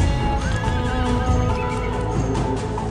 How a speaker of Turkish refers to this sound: Önden giden iki at durdu. Yola kütükler yığılmış, araba geçemez. Atlar 10 kişi kadar. Atlar bir huysuzlanıyor, şaha kalkıyor.